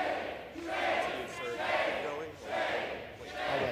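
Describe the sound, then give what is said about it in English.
A large crowd in the House chamber shouts and yells at once in loud, overlapping waves as House Speaker Kevin McCarthy reads a censure resolution aloud, the clamor swelling and dipping several times with no single voice standing out. “when House Speaker Kevin McCarthy read the censure resolution out loud, the chamber broke out in total chaos.”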